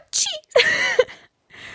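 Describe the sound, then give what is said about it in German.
A person imitates a sneeze out loud: a breathy, rising intake followed by a sharp voiced burst, then a brief trailing breath. It is deliberately performed, not a real sneeze. “Soll ich mal ein Fake niesen vormachen, damit ihr es alle von mir hört?”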